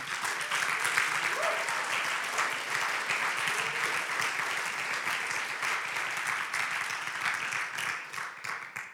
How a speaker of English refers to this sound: Can we just clap our hands because that's awesome what Jesus is doing.